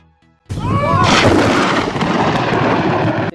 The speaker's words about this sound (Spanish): Este sonido se llama trueno y se genera cuando un rayo calienta el aire a su alrededor a una temperatura de 30.000 grados Celsius y puede alcanzar de 120 a 130 decibeles si cae a una distancia cercana.